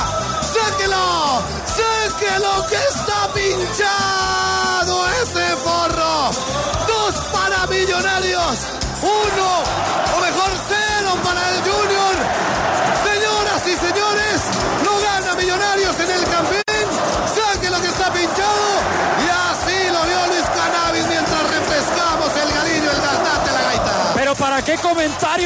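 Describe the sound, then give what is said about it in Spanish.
A packed crowd of fans in blue at the Nemesio Camacho (El Campín) stadium roars and celebrates a title at the final whistle, a dense continuous wall of cheering, chanting voices, whoops and yells, loud and sustained throughout. “El estadio Nemesio Camacho, el Campín repleto de hinchas azules que claramente celebraron junto al equipo un título más,”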